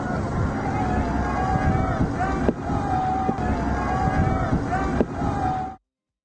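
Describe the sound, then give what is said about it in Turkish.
A boat engine roars steadily on the open sea near rubber dinghies, where Greek security forces are trying to puncture the rubber boats. Heavy wind buffets the microphone, with muffled voices faintly underneath before it cuts off abruptly. “Çünkü lastik botları böyle delmeye çalışıyor Yunan güvenlik güçleri.”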